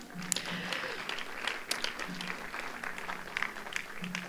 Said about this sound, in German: Gebt mal einen Applaus, das ist echt toll.